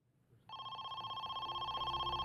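telephone ringing

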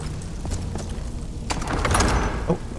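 door opening

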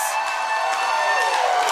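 studio audience cheering

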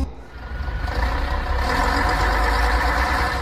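bus engine idling

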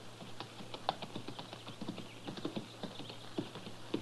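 horse hooves riding away

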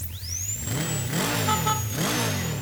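motorcycle engine revving

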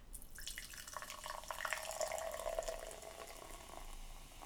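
pouring a drink

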